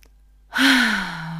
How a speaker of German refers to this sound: Hallo einmal tief ein- und ausgeatmet